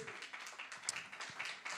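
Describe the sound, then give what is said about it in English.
An audience at a church in Alameda, California, claps their hands for their pastor and his family in a steady, dense wash of applause, fairly soft throughout, with faint voices mixed in underneath. “Give your pastor and his family and his wife a hand clap.”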